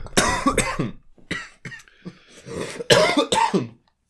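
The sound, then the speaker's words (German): A bout of harsh, spluttering coughs, loud, in two clusters separated by a brief gap with a few short gasping breaths and throat sounds in between, from someone whose beer went down the wrong way. “Falsche Tröte gekriegt, ey.”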